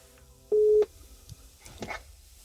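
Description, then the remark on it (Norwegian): A short, steady electronic phone tone sounds once, loud, like a call connecting on a phone line kept open to colleagues waiting in a car, while walking Nova, a 40-kilo rottweiler; followed by faint rustling and muffled background noise. “Jeg holder kontakt med dem over telefon.”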